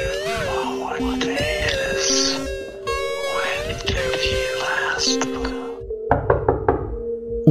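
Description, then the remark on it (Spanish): Several sharp knocks on a door, four or five in a quick uneven series, ring out near the end after a stretch of sustained droning, tonal music. “par de golpes en la puerta lo despertaron.”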